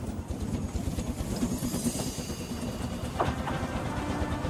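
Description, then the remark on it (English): A goods train rolls along the rails with a steady, heavy rumble and a quick rhythmic clatter of wheels, plus a brief higher metallic squeal near the end. No one speaks. “And on the very first clip here, oh, he is delivering a goods train and something weird occurs.”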